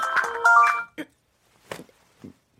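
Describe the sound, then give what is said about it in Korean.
A phone rings with a bright, melodic electronic ringtone lasting under a second, followed by a few short, soft bursts of sound and quiet gaps. “어머, 어머, 저, 전화, 전화, 전화.”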